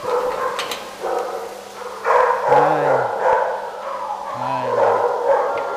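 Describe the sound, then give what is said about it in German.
Several dogs bark and yelp together in kennels, a busy overlapping clamour throughout, with two drawn-out whining cries standing out near the middle and end. “Beim Betreten der Zwinger muss man schnell sein und aufpassen, dass sich kein Hund durchmogelt.”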